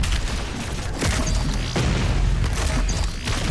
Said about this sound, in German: Und Oha, da kommt schon die nächste Horde, die explodiert.